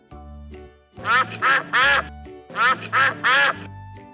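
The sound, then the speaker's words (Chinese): Ducks quack loudly in two quick sets of three nasal, raspy calls, separated by a short pause, over a soft sustained tonal background. “就看见了门口的鸭太太和小鸭子们。”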